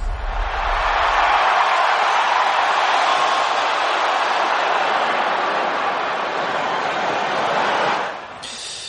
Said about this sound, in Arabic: دخلنا لك صوت الجمهور عشان تعيش اجواء الملاعب